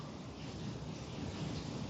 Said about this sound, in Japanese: ちょっと今お風呂を溜めてるから、水の音が聞こえたら